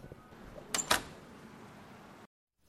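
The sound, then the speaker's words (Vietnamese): The back door of the former Japanese 18th Bank Gunsan branch building, now used as an art museum, is opened with two quick, sharp mechanical clunks close together, followed by a steady low background hum before the sound cuts off abruptly. “Mở cánh cửa sau của tòa nhà và bước ra ngoài, khách tham quan sẽ thấy một tòa nhà phụ nho nhỏ với chiều rộng khoảng 2 mét.”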